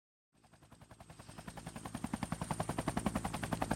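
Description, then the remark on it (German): A helicopter approaches over snow, blowing the snow away to all sides, its rapid, steady rotor chop pulsing in a regular beat and growing steadily louder over a few seconds, with no voices. “Als sich der Hubschrauber nähert und der Schnee zu allen Seiten wegstaubt”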